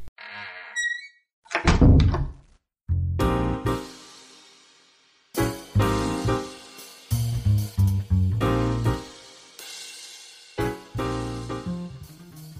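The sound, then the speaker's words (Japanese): A short run of high chiming tones leads into a brief, heavy thunk as the door of a shop opens. A steady, loud stretch of music with a pulsing beat follows, and no one speaks. “では扉をお開けしましょう”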